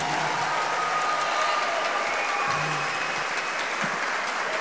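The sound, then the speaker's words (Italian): An audience at a Radio Animati interview applauds before the guest arrives, a steady dense wash of many hands clapping at an even loudness for the whole stretch, with no voices standing out above it. “Già un applauso prima che arrivi.”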